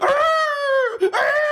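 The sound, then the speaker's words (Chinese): A voice imitates the wailing of a man being beaten with punishment rods by yamen runners, a long, high, dog-like howl that slides slightly downward, breaks briefly with a gasp, then rises into a second loud wail. “衙役过来，摁倒之后抡起刑杖，跟雨点似的，噼啪噼啪，这通揍，打的孙大军那嗓子眼都发出狗动静来了。什么叫狗动静？哀嚎，”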